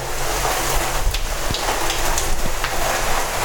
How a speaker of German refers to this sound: Jetzt hört ihr mal so richtig den Regen.